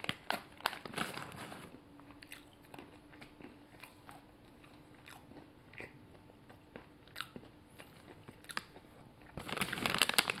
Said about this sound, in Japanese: あの、食べながらなんで、完全にあの、咀嚼音をお楽しみくださいみたいになってますけどね。うん。まあ、あと3粒ぐらいで終わりですね、これは。